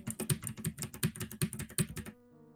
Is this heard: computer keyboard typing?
yes